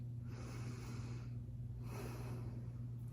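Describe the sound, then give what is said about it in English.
A single slow, deep breath taken during a stethoscope check of the lungs: a long airy inhale followed by a long exhale, soft over a steady low hum, with no talking. “All right, one deep breath.”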